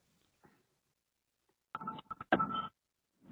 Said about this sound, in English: So far, so good. I just heard the beep.